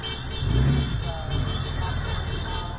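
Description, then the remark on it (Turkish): A steady stream of cars and motorcycles in a convoy of Trump supporters in the United States during Labor Day rolls past, engines droning and rumbling continuously, with a faint horn-like tone and indistinct voices mixed into the traffic noise. “Her yıl Eylül'ün ilk haftası işçi bayramını kutlayan Amerika Birleşik Devletleri'nde Trump destekçileri araba ve motosikletlerle konvoy oluşturdu.”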